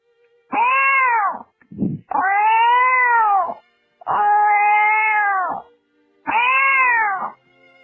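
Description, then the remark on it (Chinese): A person imitates a cat with four long, loud, wavering meows, each rising and falling in a high tone, separated by short pauses with a brief breath between the first two. “先是小猫叫，”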